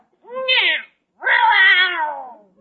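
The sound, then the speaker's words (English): A cat named Minerva meows twice, a short call followed by a longer, drawn-out one that slides downward at the end. Both are clear, fairly loud and tonal, with no voices alongside. “There isn't any cream left, Minerva. We'll have cream for you tomorrow. Drink that milk or I'll turn on the washing machine.”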